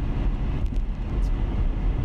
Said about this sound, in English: there's a semi truck that's actually my employer.